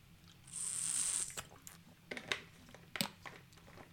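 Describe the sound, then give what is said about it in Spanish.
Quiet sounds of two people drinking water: a brief high squeak, then scattered clicks, small gulps and bottle handling noises over a few seconds, with no talking. “No, vamos a parar dos segundos y vamos a beber ambos agua.”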